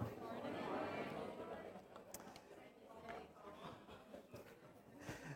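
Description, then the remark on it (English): An audience chatting before a harvest Sunday church service: a steady, overlapping murmur of many voices in conversation, with no single speaker standing out, continuous throughout. “Um, people chatting, having conversations, um, and having a bit of crack, as we would say, uh, as well, as we come um, to worship today.”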